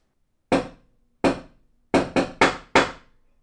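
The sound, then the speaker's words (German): A house door knocker raps out an agreed knocking signal: two spaced strikes, then a quicker cluster of four, each a sharp, loud metallic-wooden clack with a short ringing decay, no voices. “Man kann natürlich ganz bestimmte Klopfsignale vereinbaren.”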